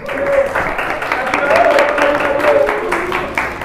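An audience claps steadily for several seconds, a dense, even crackle of many hands with no pauses, while a few voices call out or cheer faintly underneath.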